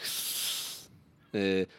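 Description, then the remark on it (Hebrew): A person hisses through their teeth in imitation of a viper's defensive hiss, the blowing out of air the snake uses to warn and scare, a sustained airy sound lasting under a second, followed by a brief pause and a short voiced sound. “והוא עושה את זה על ידי אה, נשיפה של אוויר, אה, מין כזה קול של...”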